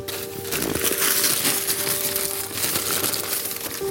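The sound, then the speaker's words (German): Continuous crinkling and rustling of a bag being handled, a dense papery crackle that stays fairly loud and steady throughout, with no voices. “Die gibt es jetzt in einer anderen Tüte.”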